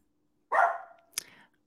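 A dog barks twice, a full, ringing bark followed a moment later by a sharper, shorter one, alone against a quiet background.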